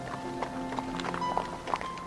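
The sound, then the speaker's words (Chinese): Hooves of Kelpie, a horse saddled and ridden by Ciri around a corral and a hut, clip-clop in an unhurried, fairly even rhythm, a handful of crisp knocking beats standing out over a steady, humming tonal background. “希瑞给凯尔比套上马鞍，骑着它绕畜栏和小屋转了几圈”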